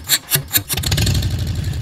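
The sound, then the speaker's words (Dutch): A police officer's motorcycle engine cranks over in three quick bursts, then catches and settles into a loud, steady, rumbling idle. “ja, de bijzondere geluiden. Dit, dit is mijn voertuig”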